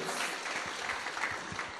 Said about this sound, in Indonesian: Ya, berikan tepuk tangan dulu.